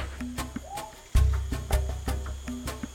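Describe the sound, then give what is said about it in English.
Outdoor jungle ambience in the department of Vaupés: short, repeated bird calls and chirps ring out among the trees over a steady high insect-like drone and a low background rumble, with occasional sharp rustles. “And as we walk through the jungle surrounded by the sounds of birds in the trees,”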